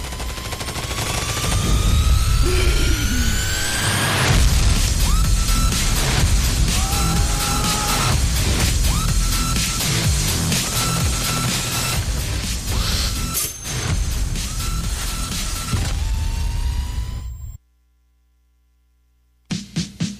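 A loud, dense horror-style jingle introducing talk about a very scary film: rumbling low tones, rising and falling whooshes, a pulsing repeated tone, and sharp crashing hits. It cuts off abruptly into silence, then a few brief bursts return.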